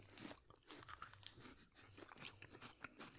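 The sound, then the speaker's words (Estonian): Crisp crunching as someone bites into a green tea KitKat wafer from a freshly opened pack and chews, with a steady run of sharp crackly bites and mouth noises, no talking. “me tegime praegu paki lahti, see on roheline KitKat siin sees ja ma hammustan kohe sisse, kõigepealt nuusutan.”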